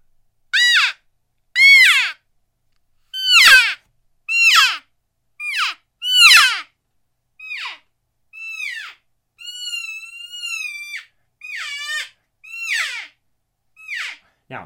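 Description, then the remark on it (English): A series of about a dozen short, high-pitched, nasal elk cow mews blown on a Primos cowgirl elk call with a small rubber bell, spaced a second or so apart, fairly loud, with no talking. “That was with a cowgirl with the little rubber bell on it.”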